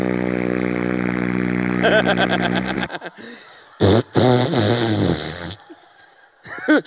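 A long, buzzy fart sound effect that starts as a steady low drone and breaks into a sputtering flutter before cutting off, followed by bursts of laughter and voices.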